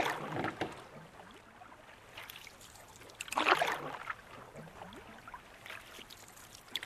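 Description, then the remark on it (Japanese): Oars dip and pull through water as a boat is rowed in light falling snow, in a few unhurried strokes, each a soft splashing swish, the middle one loudest, over a steady low lapping of water. No one speaks. “その声をかき消すようにおいらは船を漕いだ。”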